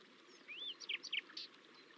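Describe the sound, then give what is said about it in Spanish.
Birds sing in a quick, high-pitched phrase: a rising whistle followed by several bright chirps in close succession, fairly soft, with no one talking; birds flying and singing among large trees. “Notas los cantos tan diversos y armoniosos de los pájaros y otros animales.”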